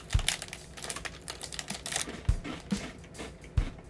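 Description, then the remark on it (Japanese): Crunchy chewing of a Hato Sablé butter cookie: a steady run of crisp, crackly crunches punctuated by a few heavier bites, fairly loud, with no talking. “今日は今手元にですね鳩サブレを用意いたしましたのでちょっといただきながらラジオをお送りしていこうと思います咀嚼音とかねちょっと不愉快かもしれないえー、いただきます”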